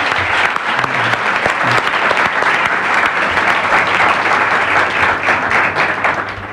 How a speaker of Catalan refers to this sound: que fem un primer aplaudiment no pels esportistes sinó pels col·laboradors de la ràdio que també han han donat a conèixer els vostres èxits.